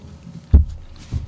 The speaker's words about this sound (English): Sorry, we're chewing. Mm-hmm. I asked him while he had chocolate.